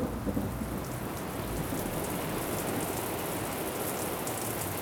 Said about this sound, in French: À Budapest, on s'était posé dans un bar qui était dans une cour. Et d'un seul coup, il s'était mis à pleuvoir des cordes.